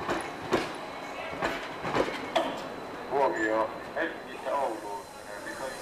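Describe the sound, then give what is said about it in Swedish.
A train rolls along the rails at a railway station with a steady rumble and irregular clicking and clanking, while a voice speaks over it. “Följande dag stod jag spänd och lite uppsluppen på järnvägsstationen.”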